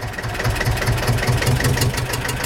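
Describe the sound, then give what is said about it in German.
A tractor engine idles steadily, its low diesel rumble pulsing in an even, rapid rhythm with a faint rattling knock throughout. “Dann machen wir jetzt mal Feierabend und machen den Trecker wieder aus.”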